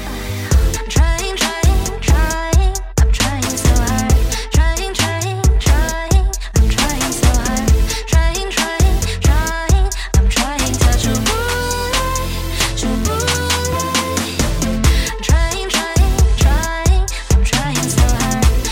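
A loud, full-band song about constipation, written with a Swiss songwriter, plays steadily, driven by a punchy, evenly pulsing beat under layered melodic lines, with a sliding, wavering tune rising out of the mix midway through.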